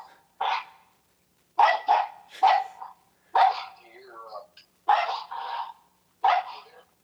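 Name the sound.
dog barking repeatedly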